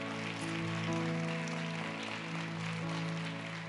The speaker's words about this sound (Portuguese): Aplauda ao Senhor.